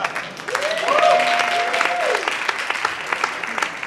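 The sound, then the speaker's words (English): An audience at a comedy show applauds steadily, a dense wash of clapping that holds at a fairly loud level throughout, with a brief whoop or cheer rising above it early on. “Please keep that round of applause going”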